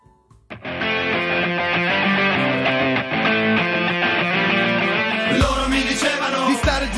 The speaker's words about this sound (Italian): quindi vi regaliamo un'altra canzone